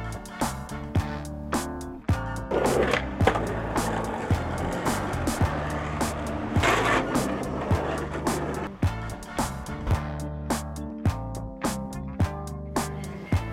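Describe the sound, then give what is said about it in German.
Skateboards rolling at the Some Cash for your Dash skate contest in the Cradle Skatepark, Brixlag: a continuous low rumble of wheels on concrete broken by sharp, irregular clacks and pops of boards landing. There is no talking. “Contest, Skate Contest am Programm.”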